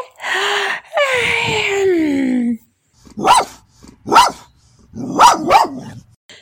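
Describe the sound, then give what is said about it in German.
A drawn-out, falling dog whine gives way to sharp barks: two single barks spaced apart, then a quick double bark, loud and clear with no one talking. “Wuff, wuff.”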